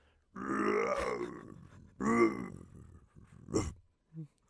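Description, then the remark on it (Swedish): A person imitates the MGM (Metro Goldwyn Mayer) Studios lion's roar, letting out two long, rough growling bursts followed by a shorter raspy grunt and a faint trailing sound. “Nej men och den där känner man igen, det är ju Lejonet.”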